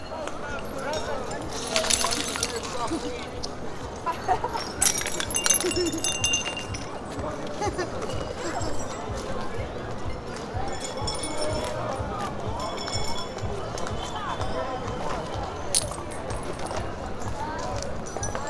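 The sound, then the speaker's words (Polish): Footsteps crunch and grind over broken glass bottles on the cobblestones of a town market square after festive celebrations, with steady clinking and tinkling shards, while a crowd murmurs in the background. “Natomiast na ulicy, na bruku, rynku było mnóstwo szkła, po prostu butelek, potłuczonych butelek. No i tak się chodziło po tym szkle.”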